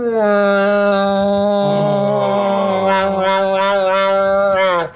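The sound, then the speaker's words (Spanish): A cow moos in one long, loud, drawn-out call lasting about five seconds, steady in pitch with a slight waver, with no other sounds around it. “Te podés calmar. Es una vaca.”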